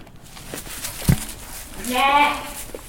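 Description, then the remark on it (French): A single wavering, moderately loud bleat of a Lacaune ewe, a large, all-white, hornless sheep breed with big ears weighing 75-80 kg as adults, rises after a brief knock, with faint background noise throughout. “Les lacones, c'est des grandes brebis qui, euh, toutes blanches.”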